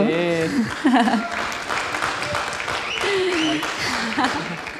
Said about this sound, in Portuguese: Salva de palmas para esse marido lindo.